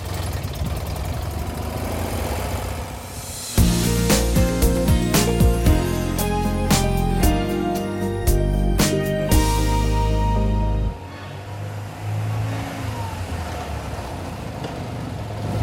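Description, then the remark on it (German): A car engine idles with a loud, steady mechanical hum and rapid knocking clicks, then drops to a softer, continuous low rumble as the car drives off, leaving the old town of Stralsund, Germany, along the German Avenue Road toward Grimmen. “Wir sind jetzt 25 Kilometer von Stralsund bis Grimmen gefahren und haben jetzt hier auf einem Parkplatz am Stralsundischen Tor geparkt”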